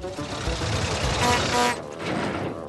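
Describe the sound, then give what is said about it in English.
Sir Topham Hatt's small rail car, Winston, arriving in the yard on the island of Sodor on a warm summer evening. Its engine rumbles and whirs in a steady mechanical drone, with a brief horn-like tone rising through it, loud and continuous for a few seconds. “Thomas, James, Percy, and Rebecca were together in the yard when Sir Topham Hatt arrived in his rail car, Winston.”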